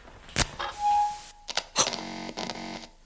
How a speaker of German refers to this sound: Das Neonlicht geht an.